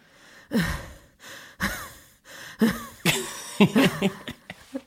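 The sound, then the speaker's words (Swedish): A person imitates straining groans while getting out of bed, a run of short effortful grunts and sighing moans one after another, ending with a small breathy laugh-like exhale. “Stönar du stonkar lite så ja. hur, hur, låter du?”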